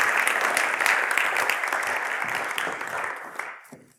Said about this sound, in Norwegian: Vi skal gi en takk til de frivillige. Jeg kan godt klappe.